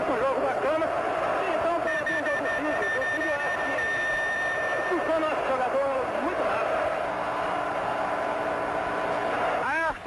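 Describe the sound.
A massive crowd of Corinthians football supporters chants continuously in the Morumbi stadium, a dense roar of many voices with rising and falling sung phrases, loud and unbroken for the whole stretch.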